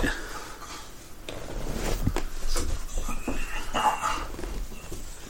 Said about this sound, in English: Sorry, the dog on the floor wanting a belly rubbed.